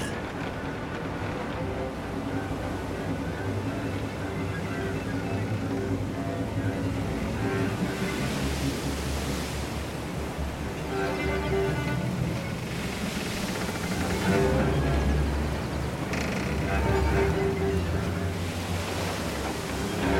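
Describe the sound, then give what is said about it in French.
Wind roars steadily over rough sea waves, with loud surges of surf washing in and building stronger toward the end, a continuous noisy seascape with no voices. “Le vent se lève et la mer s'agite.”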